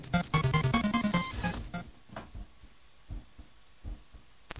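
A pop song intro opens with a short run of pitched, melodic notes over deep thumps, then thins to sparse, soft heartbeat-like bass pulses spaced irregularly, fairly quiet overall.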